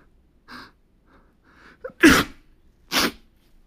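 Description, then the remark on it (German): Two loud, sharp sneezes about a second apart, clearly faked by a person imitating the sound, each preceded by a quick, quiet intake of breath. Dry, with no talking. “faken, dass ich niese.”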